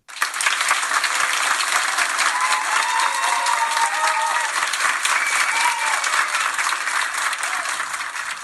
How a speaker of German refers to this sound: ich fühle mich zurückversetzt zu einem Zeitpunkt, als mich dieses Klatschen echt auf die Palme gebracht hat